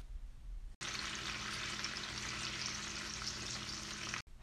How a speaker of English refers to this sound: Snapping shrimp live in coral reefs and make a snapping sound that helps fish to find their way back home.